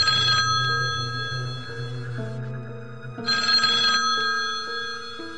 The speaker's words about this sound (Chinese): 好，然后他们都睡觉把灯关了噻，然后结果都听到，都是没得住住那个没住人的那个那那个床床位下面的那个电话突然就响了起来，